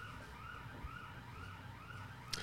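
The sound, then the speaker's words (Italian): A neighbour's alarm siren rises and falls steadily, its warbling tone sounding continuously over a low background rumble, with a brief sharp click near the end. “Non capisco, c'è questo vicino a cui parte l'allarme e basta, non lo caga finché le batterie dell'allarme non si consumano praticamente in maniera totale.”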